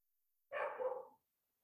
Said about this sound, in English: sorry about the dog again.